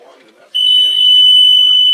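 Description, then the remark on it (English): A loud, piercing electronic buzzer marks the end of the first quarter of a game played in falling snow, with the Patriots leading 16 to nothing. It kicks in after a brief moment of murmuring and holds a steady, sustained tone to the end, with faint voices and crowd noise underneath. “There's the buzzer, and that's the end of the in the West End.”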